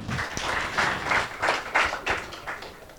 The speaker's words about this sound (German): Dann gibt es auch äh, endlich ein Konto für Mitgliedsbeiträge und Spenden. Nochmal Jubel bitte. Danke.